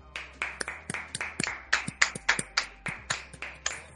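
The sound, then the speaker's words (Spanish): A short burst of hand clapping for the wrestler Luchasaurus, around fifteen sharp, crisp claps at a quick, slightly uneven pace, fairly loud, with no talking over them. “Luchasauros, mm, desde aquí quiero, por favor, hacer un aplauso a Luchasauros.”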